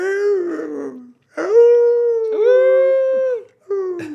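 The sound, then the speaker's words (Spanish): Someone imitates a wolf howl with three or four drawn-out, wavering howls in quick succession, loud, with brief pauses between them and no talking. “Está en vergas aullar en los ochentas.”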